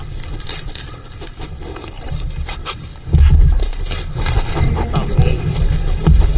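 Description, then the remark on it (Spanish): A dog sniffing, licking and then eating a banana: irregular short snuffles and wet smacking over a steady low rumble, turning louder and busier about halfway through, with no talking. “He's, he's like sniffing the banana. Now, now he's licking it. Now he's eating it.”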